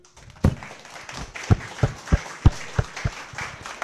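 Steady, warm audience applause in Shenzhen welcoming the host of the show 随口说美国 on stage, with a continuous patter of clapping, punctuated by a series of evenly spaced, heavier thuds about every third of a second.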